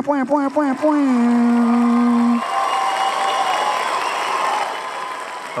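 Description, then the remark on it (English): A live studio audience cheers, with a loud rising whoop and sustained vocal shout at the start, then gives way to steady, fairly loud applause and crowd noise that continues to the end. “And we are in front of a live studio audience.”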